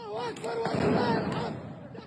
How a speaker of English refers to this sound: An Israeli statement said the worshippers were armed with fireworks, stones and sticks. As police officials raided the mosque, fireworks were used against them.